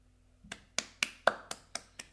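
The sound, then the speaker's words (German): A quick run of about eight hand slaps on a person's own belly, evenly spaced and steady, each a sharp smack with a short fleshy thump, with no talking. “Ich werde die Folge so beenden, wie ich sie angefangen habe, mit ein paar Klatschen auf meinen Bauch.”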